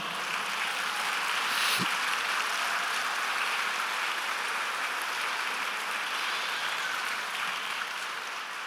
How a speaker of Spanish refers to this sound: ¿Le puedes dar un aplauso al Señor?